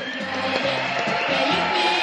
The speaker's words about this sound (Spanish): Un fuerte aplauso para Juan Gómez Curado.